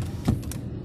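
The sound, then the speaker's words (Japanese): Steady low rumble of a car cabin on the move during a commute, with a soft thump and faint creak partway through; no one speaks. “普段ですね、このポッドキャストは通勤の車内で録音しているんですよね。”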